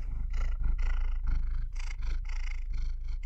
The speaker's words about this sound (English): that purring sound is my is my cat Mio